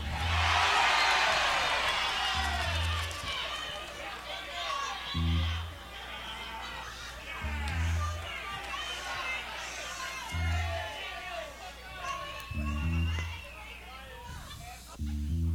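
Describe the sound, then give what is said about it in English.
A loud, rowdy crowd at a rock and roll concert shouts and cheers continuously, many voices overlapping in a dense roar, with heavy low thumps pounding at a slow, steady beat beneath the noise. “Now, is that any way to behave at a rock and roll concert?”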